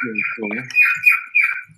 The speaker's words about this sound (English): My bird's going off. someone has got a bird. yeah, my bird's decided he wants to have a sing. Uh, he's a cockatiel.